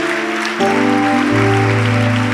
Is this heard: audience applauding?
yes